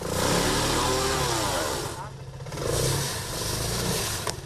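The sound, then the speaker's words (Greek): A jeep engine revs and strains as the jeep is driven up and down a road to open it, in Agia Paraskevi; its pitch rises and falls in sweeps before settling into a steady rumble, with no voices over it. “Ευτυχώ έχω τον τζιπ εδώ πέρα και έκανα πάνω κάτω το δρόμο και άνοιξα μόνο μου.”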